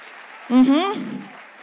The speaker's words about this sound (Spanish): Dale un aplauso mejor de ahí al Señor.